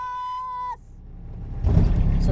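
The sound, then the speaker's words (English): A steady, buzzy high whine cuts off abruptly, then a four-wheeler ATV engine is fired up, rumbling low and building into a loud, rough, continuous roar as it rolls slowly to the next cattle pasture. No one speaks. “fires up the four wheeler, and we start rolling slowly to the next pasture.”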